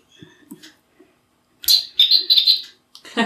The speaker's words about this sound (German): Das ist die Uhr, über die wir es gerade schon hatten. Die macht jede Stunde ein Vogelzwitschern. Sehr schön, da haben wir quasi ein bisschen äh, Natur ins Interview geholt.